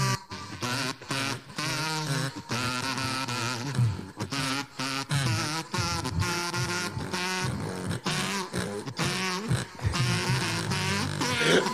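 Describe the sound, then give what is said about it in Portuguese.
A loud, raspy grunting noise that sounds like snoring, made by a person trying to do the bass part with their voice, buzzy and rich in overtones, running almost continuously in choppy bursts with short breaks and no talking over it. “Parece que tá roncando ali”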